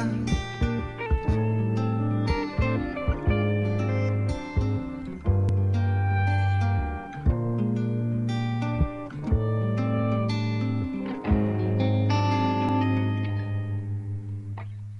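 A song plays steadily with sustained bass notes, chords and crisp rhythmic accents, then its final notes linger and gently taper off near the end. No one speaks over it.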